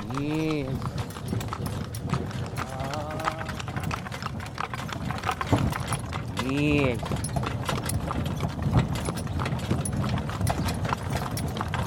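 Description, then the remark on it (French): In Félix Blum's sound recording Conversation de chevaux, horse hooves clop steadily throughout, while a horse lets out two loud whinnies, one at the start and another midway. “Voilà, donc je vous renvoie au site de Félix Blum et on écoute tout de suite Conversation de chevaux.”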